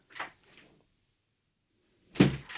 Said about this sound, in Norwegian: på vei inn døra her.